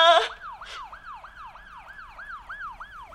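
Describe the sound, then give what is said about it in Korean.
A police car siren wails in a fast, repeating yelp, each rising-and-falling sweep coming about three times a second, steady, with no voices, after a brief sharp burst at the start, as the police car enters a park entrance. “아줌마가 지금 경찰차 이동 경로를 보고 있거든요.”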